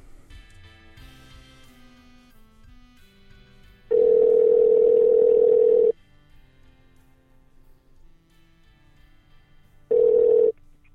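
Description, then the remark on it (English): A phone ringback tone sounds twice as a call is placed to a mother, a steady two-second buzz followed after a pause by a shorter burst, loud and clear over a faint hum of background noise. “Okay, it's ringing.”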